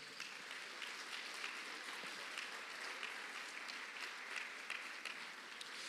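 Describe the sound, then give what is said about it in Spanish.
An audience claps loudly and steadily for the Lord, a dense wash of many hands with no pauses for the whole stretch, bright and crisp with no voices standing out. “Dele palmas fuerte al Señor, pues.”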